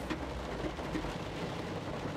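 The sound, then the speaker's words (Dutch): Heavy rain pours down steadily, a dense, continuous hiss of drops with a low rumble underneath, fairly loud with no voices. “En het regent echt hard.”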